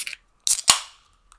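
A bottle being opened: a short crackling snap followed by a sharp pop that trails off in a brief hiss, then a faint tick. No one speaks.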